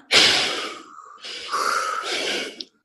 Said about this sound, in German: So, jetzt alle mal atmen.